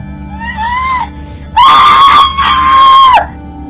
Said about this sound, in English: Why are you screaming when I haven't even cut you yet?